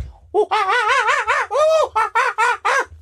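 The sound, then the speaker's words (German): Loud, raucous screeching calls from birds in Australia, a rapid run of about seven harsh, wavering bursts in close succession, filling the whole moment. “Das ist nicht, das ist nicht Vogelgesang, das ist Vogelgeschrei.”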